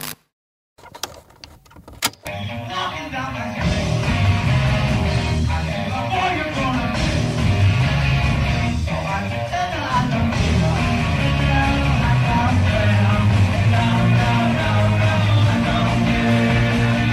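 An old demo recording of a rock band kicks in after a couple of seconds of clicks and near-silence, then plays on loud and dense, with thick guitars and drums, no vocals standing out.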